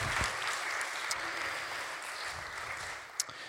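A crowd applauds steadily, a dense wash of many hands clapping at an even, fairly quiet level for a few seconds with a couple of sharper claps standing out near the end.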